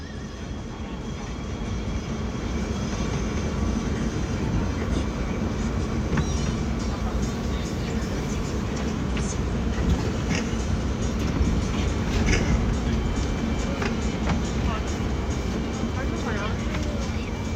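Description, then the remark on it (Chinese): Heard aboard a subway train: the train rumbles steadily with a dense, low roar for the whole stretch, thin squeals and clicks rising now and then, and indistinct voices murmuring underneath. “地铁上的声音”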